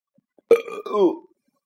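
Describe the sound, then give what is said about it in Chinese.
A single loud, drawn-out burp lasting under a second, starting with a sharp onset and gurgling downward in pitch before trailing off, with silence around it. “如果这些空气从嘴里出来，就是打嗝”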